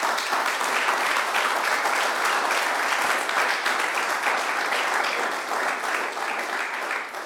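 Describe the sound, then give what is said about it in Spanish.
A church audience claps steadily in praise of God for several seconds, a dense, continuous patter of many hands at fairly even loudness, fading slightly at the very end. “Dele palmas al Rey.”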